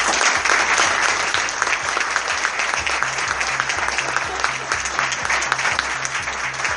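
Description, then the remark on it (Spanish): A crowd claps loudly and steadily for the whole stretch for the people being thanked, including the Espacio Liberar venue, a dense unbroken wash of applause, with a faint low stepping bass line pulsing underneath. “Eh, pido un fuerte aplauso para ellos.”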